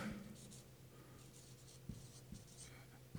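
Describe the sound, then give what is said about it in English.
Chalk or marker scratching across a board in short strokes as someone writes by hand, with a few soft taps between them, fairly quiet with a low hum underneath and no talking. “I do not have the world's best handwriting, I apologize.”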